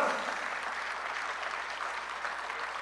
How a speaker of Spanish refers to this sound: alguien tiene que aplaudir mejor al Señor. diez segundos de alabar al Señor, hermano.